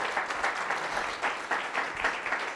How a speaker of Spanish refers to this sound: Vamos a darle un aplauso a Dios por eso. Claro que lo merece.